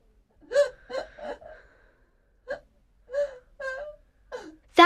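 A child cries and wails in short, broken bursts with pauses between them, the voice rising and trembling, coming from behind a door; a sudden loud cry cuts in at the end.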